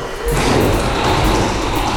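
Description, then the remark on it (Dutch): A heavy secret door with frosted glass is pushed open, starting with a dull thud and continuing as a steady low rumble and scrape of movement for a couple of seconds. “dus Einstein zou deze deurknop hebben geraakt kunnen hebben. Dan gaan we naar binnen.”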